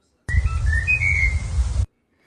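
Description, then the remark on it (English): A bird whistles a short, clear melody of shifting notes, like a snatch of a pop tune, lasting under two seconds over a low background rumble. “what does Danielle and this bird have in common? They both love this song.”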